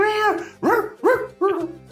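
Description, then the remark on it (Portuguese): A voice imitates a cat barking like a dog at dogs in the street, with four loud, yelping barks in quick succession, each rising then falling in pitch, with short gaps between them. “O cara tá filmando o gato, o gato tá latindo pros cachorros na rua, né?”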